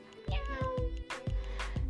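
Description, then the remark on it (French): A tiny, thin meow from a very small cat rises and falls in pitch, fairly soft, over a low, steady, rhythmic thumping in the background. “Le chat fila se cacher derrière les jambes d'oncle Sam avant de lancer aux enfants un minuscule”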